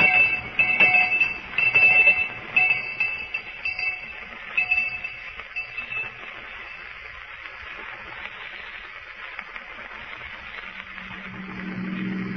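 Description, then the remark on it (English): A shrill school lunch bell rings continuously, loudest for the first few seconds, then keeps ringing more steadily and slightly softer, with a faint low rumble creeping in at the end. “All right, Miss Perkins, I'll ring the lunch bell.”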